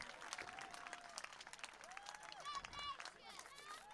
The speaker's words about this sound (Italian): Eccolo qua, forza! Dai una bella corsa! Salutiamolo, dai un applauso forte, oh! Ragazzi, eh, facciamo sentire allo stadio Ferrari sera in 30.000, eh?